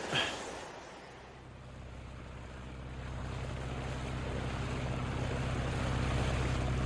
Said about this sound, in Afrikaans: Die wind, hy's sterk.